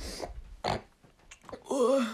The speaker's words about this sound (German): Nee, ich habe gerade nicht gefurzt. Das war meine Nase. Ich habe meine Rotze runtergeschluckt. Ja, ich bin erkältet und das mitten im Sommer.